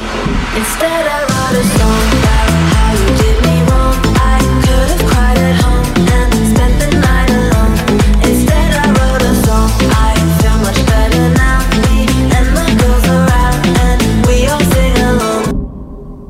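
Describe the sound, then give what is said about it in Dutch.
A loud, dense pop track with a steady beat, bass and layered instruments, with sung vocals that seem to blend two female singers, cutting off abruptly near the end. “En, maar ik hoor hier wel eh, twee hele bekende zangeressen door elkaar gemixt.”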